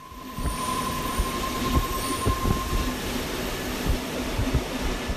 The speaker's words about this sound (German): Auf dem Kreisviadukt Brosio windet sich der Zug um 360 Grad wie eine Spirale und überwindet so den Höhenunterschied im engen Tal.